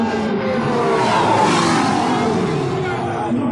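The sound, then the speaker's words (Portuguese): A V6 race car engine roars past, its pitch rising and loudness swelling mid-pass before easing off, with a murmur of background voices throughout. “Olha o V6. É muito rápido.”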